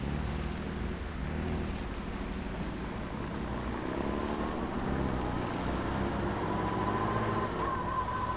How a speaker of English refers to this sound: Les pierres de route crépitent sous les roues de la voiture.